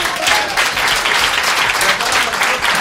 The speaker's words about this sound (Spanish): y nada, un aplauso para los amigos de pequeño.